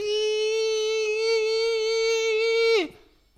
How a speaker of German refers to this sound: Es ist wahnsinnig laut in meiner Küche. Ich weiß nicht, ob man es hört. Mein Kühlschrank macht seit neuestem super laute Geräusche.